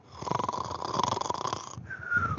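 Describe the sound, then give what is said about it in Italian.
Loud, rasping snoring from a sleeping person, a long vibrating inhale with a buzzy rattle, then a shift to a higher, whistling tone at the end. No one speaks. “sveglia! Ma hai ascoltato la puntata?”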